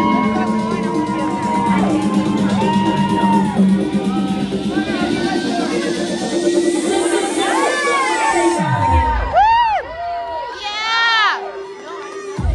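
A loud crowd at a runway show cheers and shouts continuously, a dense roar layered with high-pitched whoops and yells, the shrill rising-and-falling screams growing sharper toward the end.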